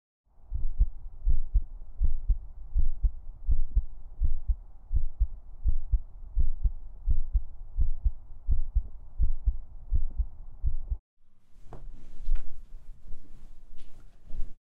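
A person's fast heartbeat thumps steadily in low, muffled pulses, about two to three beats per second, for roughly eleven seconds before cutting off into brief rustling and scraping noises.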